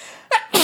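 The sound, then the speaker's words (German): A single loud sneeze: a sharp indrawn breath followed by an explosive burst of noise, all in under a second with no talking. “Gesundheit.”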